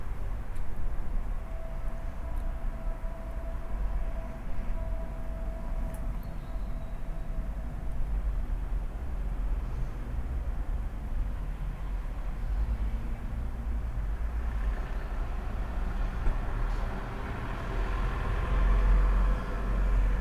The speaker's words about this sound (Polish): Wyszedłem na balkon, piękna pogoda, słońce świeci, troszeczkę taki delikatny wiatr jest czasami. Może sobie słychać, bo rejestratory nie mają żadnej gąbki na sobie.